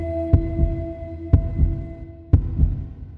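A steady heartbeat thumps three times, each beat a sharp low knock followed by a softer second thud, about one second apart, over a faint continuous hum with no talking.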